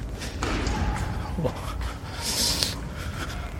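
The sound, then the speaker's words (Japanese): Kendo practice inside a gymnasium with its windows left open, on the gym's second floor: scattered thuds and sharp strikes with bursts of everyone shouting at once, over a steady, roomy background din. “どうも剣道っぽいですね”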